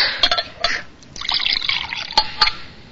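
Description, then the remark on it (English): Water is poured from a pitcher in short, splashy bursts, gurgling and trickling for a few seconds, with a couple of louder spurts near the end and no one talking. “Say, would you mind bringing me that pitcher of water right there?”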